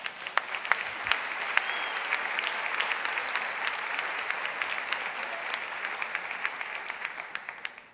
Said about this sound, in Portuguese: A gente aplaude tanta coisa, não aplaude um texto desse?